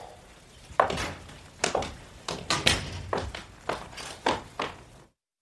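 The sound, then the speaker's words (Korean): A door being opened, heard as a quick run of wooden thunks and taps, about ten knocks of handling and latch noise in a steady uneven rhythm, with no one talking. “금이가 문을 열었을 때 커다란 못 하나가 벽에 박혀 있는 걸 보았다기보다는 그쪽 벽엔 가구고 뭐고 아무것도 없어 못 밖에 보이지 않았다.”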